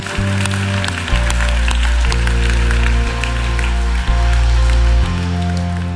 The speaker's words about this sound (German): Komm, lass uns Gott einen riesen Applaus geben.